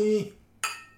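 Two glasses clink together in a toast, a bright ringing tap followed about half a second later by a second, sharper clink whose high ring fades away. No one speaks.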